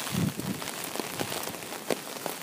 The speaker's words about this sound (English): Oh, it's getting windy here.